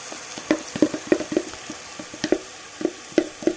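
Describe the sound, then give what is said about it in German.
White cabbage sizzles as it braises in a hot pan while being stirred, with a string of short clattering scrapes every fraction of a second over a steady frying hiss, with no talking. “Dann tun wir einfach so wie der ist den Weißkraut da drauf. Und lassen den ein bisschen anschmoren.”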